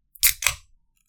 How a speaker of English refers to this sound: See, that's the sound of a can opening. If you guys didn't think we were actually getting sodas on these soda pop breaks. You're proven wrong.